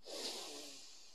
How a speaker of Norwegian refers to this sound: Da kan vi begynne med å tømme hodet på tanker, og det gjør vi med å puste godt inn med nesa